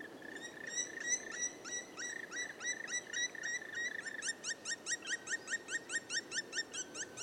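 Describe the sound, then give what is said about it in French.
A black woodpecker gives a long series of loud, ringing calls, repeated steadily and quickening toward the end, over a faint forest background with no talking. “Ce grand oiseau est assez difficile à voir quand on se balade en forêt, mais son cri, lui, est très reconnaissable.”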